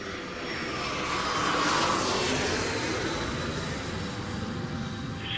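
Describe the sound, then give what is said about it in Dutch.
A propeller airplane drones steadily overhead, passing over a house in the late afternoon, its engine swelling slightly as it passes and then easing off, a continuous broad rumble with no voices. “En het leek net alsof die vliegtuig, de motorgeronk dat over het huis voorbij trok, of, of ik meegezogen werd door die vliegtuig.”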